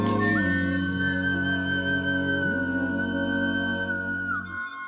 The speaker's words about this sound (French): spéciale dédicace pour Thomas VDB et sa flûte à bec.